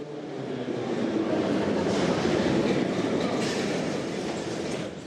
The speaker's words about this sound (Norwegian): Når T-banetogene durer inn på stasjonen ved det travle, hypermoderne forretningsstrøket som moskovittene selv kaller Moscow City, står en mengde ungdommer klar til å gå om bord med gratisbillett.